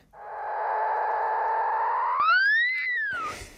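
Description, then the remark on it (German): A dolphin mother's higher-pitched call to her calf, recorded with underwater microphones attached to the dolphin: a high whistle, one drawn-out tone that rises and bends near the end, loud and clear with no voices or other sounds around it. “Sehr schön, das klingt wirklich höher und so ein bisschen betüttelnd.”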